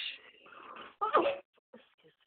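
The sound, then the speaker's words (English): A breathy intake of air builds for about a second, then a single sharp sneeze bursts out, followed by faint shuffling noises. “Bless you.”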